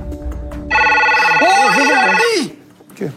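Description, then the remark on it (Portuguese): A telephone on the presenters' desk of a Big Brother TV studio rings with a loud, steady electronic tone lasting about two seconds, a voice talking over part of it before it cuts off. “Nunca tinha percebido que tinha um telefone aqui na bancada. Que coisa, eu, mas atende”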